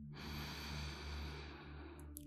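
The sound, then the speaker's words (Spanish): A slow, deep breath drawn in through the nose with the lips closed, a steady airy rush lasting about two seconds, fairly quiet, with no talking over it. “Vamos a comenzar con una respiración profunda por la nariz cerrando los labios.”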